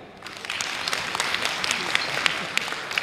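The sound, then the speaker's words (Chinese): Steady audience applause thanking a professor after his lecture, a dense wash of many hands clapping with sharp individual claps popping out, sustained at an even loudness from start to finish. “好，再次掌声对罗教授的精彩的演讲表示感谢，谢谢。”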